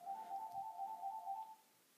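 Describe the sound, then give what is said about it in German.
A phone rings with a steady, warbling electronic tone that pulses rhythmically for about a second and a half, then cuts off, heard alone. “Und, ähm, Entschuldigung, das war mein Telefon.”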